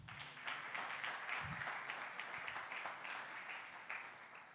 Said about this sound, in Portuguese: Quem crê nisso, aplauda o Senhor.